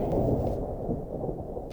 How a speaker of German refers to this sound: fängt es auf einmal an, grimmig zu grummeln und ziemlich doll zu donnern, so als wenn es ein gewaltiges Gewitter gäbe